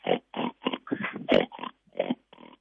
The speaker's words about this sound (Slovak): No a takto sa tie Daniele prihovárajú, nie je to také zvučné ako u jelenia, ale je to tiež také zvláštne a patrí to do toho dubového, hrabového lesa a do tých farieb, ktoré teraz tam sú.